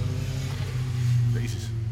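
Motorcycle engines rev with a deep, steady throbbing rumble that holds strong throughout, swelling slightly in the middle.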